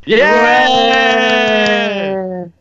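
A single loud, drawn-out shout from one voice, held at a steady pitch for over two seconds before cutting off abruptly, with no other sounds around it.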